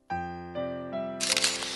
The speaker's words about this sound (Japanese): シャッターの音に彼らは一瞬ビクッとなったけれど、その場動かない。